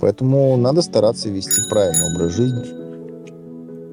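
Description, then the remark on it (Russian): A man talks, and near the end of his sentence a bright bell rings once to signal that time is up, its clear metallic tone lingering and slowly fading out on its own after the voice stops. “Это звонок для тебя.”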